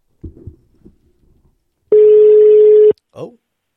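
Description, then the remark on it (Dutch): A phone ringing tone sounds once as a call is placed to a guest: a loud, steady electronic beep lasting about a second. Soft handling clicks and thumps come before it, and a brief voice follows. “En eh, ehm, we gaan hem bellen.”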